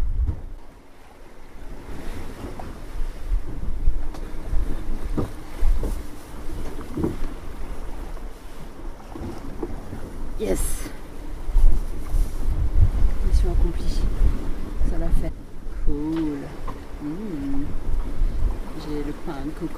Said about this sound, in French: Bon, euh, il y a des grosses vagues qui arrivent.